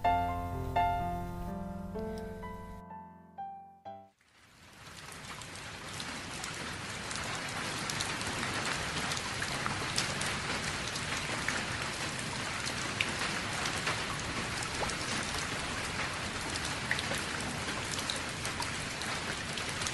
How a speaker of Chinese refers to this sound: 你住的城市下雨了，那个问你有没有带伞的人还在你身边吗？今晚的故事和下雨天有关。